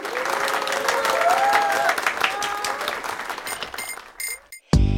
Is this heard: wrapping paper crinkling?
no